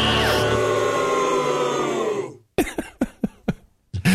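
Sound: booing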